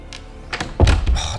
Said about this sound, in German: Sie schlossen die Tür hinter sich.